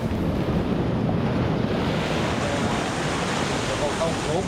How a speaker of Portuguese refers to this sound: Sem proteção das pedras, tivemos de encarar a força das ondas.